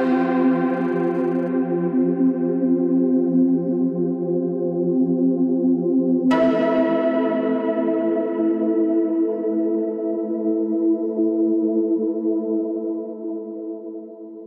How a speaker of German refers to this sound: Jede Figur in dieser Geschichte wird durch ein Instrument des Orchesters charakterisiert. Der Vogel zum Beispiel durch die Flöte. Das klingt so. Die Ente durch die Oboe.